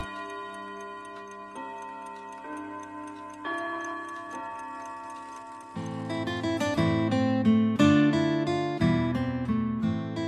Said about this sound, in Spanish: El reloj ya da las 12.